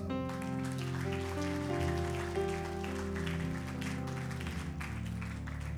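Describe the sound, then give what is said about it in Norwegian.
A church audience applauds steadily after a group prayer, a dense crackling wash of clapping that runs the whole time beneath sustained music chords from an organ or keyboard. “Gi en applaus.”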